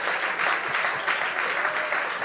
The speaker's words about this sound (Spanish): Dele el aplauso al Señor si usted se lo va a dar.